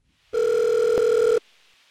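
A single steady electronic telephone tone sounds for about a second, loud, then cuts off abruptly into quiet line hiss as a caller's call connects on the line.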